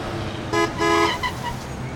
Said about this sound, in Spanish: En medio de un intenso tránsito, Enrique conduce tratando de encontrar una ruta alternativa que le permita llegar a tiempo a su cita con Luna.